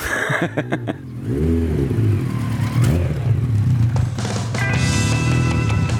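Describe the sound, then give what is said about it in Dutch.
The engine of an old 1986 racing motorcycle, rebuilt into a custom bike with a lot of rust, revs: a few sharp throttle blips followed by a loud, steady growl with rising pitch and rattling mechanical clatter. “Van oorsprong is het een, eh, een oude racer uit 86.”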